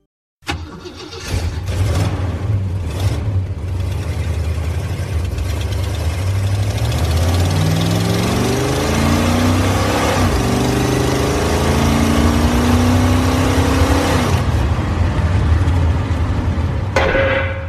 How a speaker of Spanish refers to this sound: Mi impala es mi más fiel compañero. Y su voz es el sonido del motor y la música que sale de sus entrañas. El rugido de mi impala es único. Es genuino.